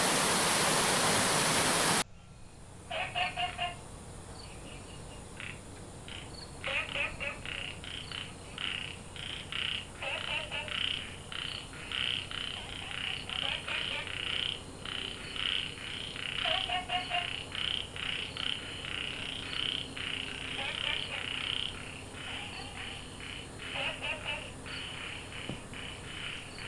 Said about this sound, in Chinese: 哇，原来是青蛙！这是在树蛙亭附近的青蛙叫声。